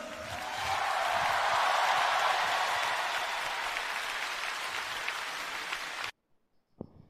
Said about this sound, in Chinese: 再一次掌声！